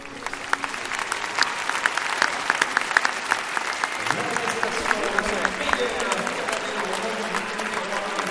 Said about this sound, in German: Da gibt es Applaus, aber der ist nicht so laut wie bei Laura Graves und äh, Isabel winkt routiniert aber sie wird wissen, dass das irgendwie nicht so war, wie das gewünscht.